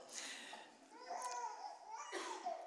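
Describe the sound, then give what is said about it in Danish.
A small child babbles in short, high-pitched bursts of wordless vocalizing, steady throughout, during a church sermon, with a breathy, noisy background sound around it. “Vi er to, der taler. Jeg håber, I kan høre mig.”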